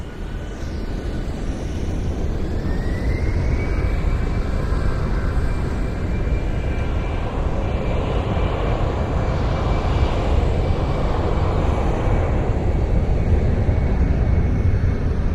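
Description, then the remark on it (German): A loud, steady airplane engine roars throughout, a broad low rumble with a rising whine that settles into a sustained high tone, continuous with no voices; the plane brings exotic ornamental fish packed in plastic bags in Styrofoam boxes. “Zu uns kommen die bunten exotischen Meeresbewohner mit dem Flugzeug.”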